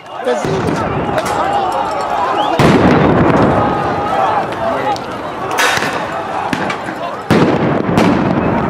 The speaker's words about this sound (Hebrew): זה היה נראה ממש כמו זירת קרב. אה, פיצוצים כל הזמן אה, באוויר, רימוני הלם נזרקים, אש ברחובות,